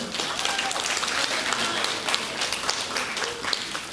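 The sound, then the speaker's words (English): An audience at a Family Sunday service claps steadily together, a dense, continuous patter of many hands at a fairly loud, even level, with faint voices mixed in beneath the applause. “You can clap.”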